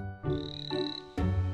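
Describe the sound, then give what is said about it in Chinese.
Frogs croak in the distance late at night in three loud, raspy bursts, one after another in a steady rhythm, each a buzzing, harmonic call with no voices present. “远处青蛙的叫声此起彼伏，声响也越来越大。”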